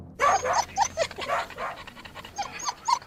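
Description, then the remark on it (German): Several dachshunds, among them Erdmann, a short-haired dachshund, and Liesel, Hexe and Bella, yap and whimper in quick, overlapping bursts of high-pitched sound, with breathy panting filling the gaps, while riding in a car in Berlin. It runs restlessly for about three seconds, with no one speaking. “Aber leider lassen sich Dackel von niemandem das Maul verbieten.”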